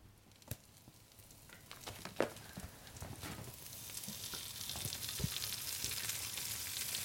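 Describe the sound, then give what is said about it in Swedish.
Chanterelle mushrooms sizzle steadily in a hot pan as they are fried and seasoned with salt and pepper in Västerbotten, a crackling hiss that builds in intensity, punctuated by a few sharp pops and clicks of utensils. “står jag och steker kantarellerna.”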